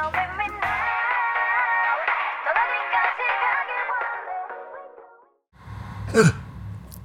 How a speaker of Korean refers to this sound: 아이고 죄송합니다. 기침 소리가 살짝 들어갔습니다.